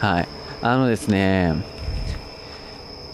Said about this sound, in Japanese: 今鳴いてるのは何なんですかねスズムシスズムシなのかなそういう秋の音ですね